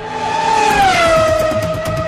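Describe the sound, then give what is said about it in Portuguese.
A loud, high-pitched Formula 1 race car engine screams and sweeps past, its whining pitch dropping steadily as it goes, with no voices. “Ouvir o ronco de longe perceber a chegada do som reverberando no peito e confundindo o batimento cardíaco e logo, por um segundo, ensurdecer.”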